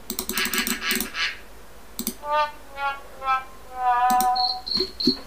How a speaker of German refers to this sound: Es war eine Grille, aber egal.